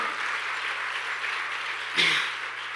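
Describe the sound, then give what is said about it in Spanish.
An audience gives the Lord sustained applause, a dense, steady wash of many hands clapping with no individual claps standing out, briefly swelling louder near the end. “Yo quiero que el pueblo de Dios le un aplauso al Señor.”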